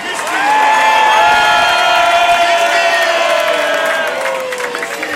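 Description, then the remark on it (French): A large concert crowd in Marseille roars with sustained cheering, whoops and high shouts, making maximum noise for the performer's agent Justine before the last song; a dense, loud wall of voices that swells early, holds steady for several seconds, then eases slightly. “Pour mon agent Justine là-bas, du bruit pour Justine Marseille, j'ai dit un maximum de bruit pour Justine”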